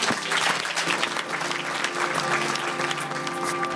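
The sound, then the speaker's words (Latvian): An audience applauds the experts steadily, a dense wash of many hands clapping at an even, sustained level with no voices standing out. “Vēlreiz aplausos ekspertiem.”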